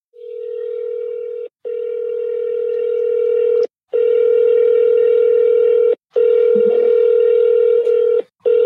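A steady telephone dial tone hums loudly and continuously, broken by a few brief silent gaps where keypad presses cut in as someone dials a real estate broker's phone number, with no voices present.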